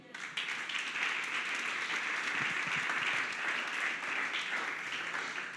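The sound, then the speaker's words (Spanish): An audience breaks into loud, sustained applause for God, a dense wash of many hands clapping together at steady intensity for several seconds, with no talking over it. “Dáselo fuerte a Él.”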